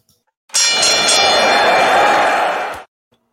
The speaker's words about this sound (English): All right, let me ring the bell.